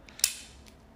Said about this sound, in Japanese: 胸の部分のバックルがえー、っとねこれマグネットになってますあのガチャンって,、えー、ってやる手で押し込むタイプではなくてマグネットにもなっているので、まあ、着脱が